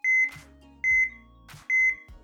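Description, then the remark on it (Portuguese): A heart monitor beep as heard in films: three beeps at a steady pace, each high, pure electronic tone followed by a short burst of noise, with a low hum underneath and no talking. “Normalmente com uma imagem do monitor e uma linha verde num fundo preto que mostra o coração a bater?”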